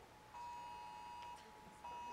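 A mobile phone alert beeps in the audience, a steady electronic tone held for about a second, then starting again after a short pause. It sounds fairly quiet, with no talking.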